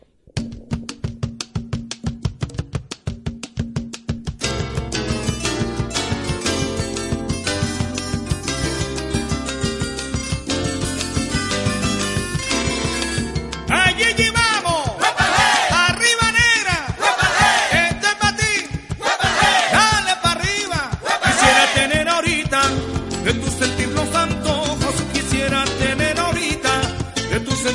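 A Venezuelan gaita plays up close: a sparse, rhythmic percussion opening gives way to a full, driving band with steady beats, and the music swells louder about halfway through.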